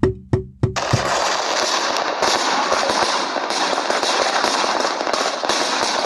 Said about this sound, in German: Oh, ist das schön. Schön, Feuerwerk.